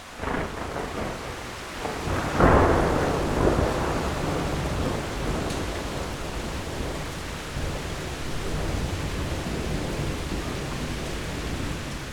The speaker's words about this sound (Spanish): Y bueno, alcanzamos a, a desembarcar de noche con algo de suerte porque mm, detrás de nosotros venía una tormenta que finalmente llegó y nos dejó atrapados en la isla sin poder salir varios días más de los que nosotros pretendíamos quedarnos.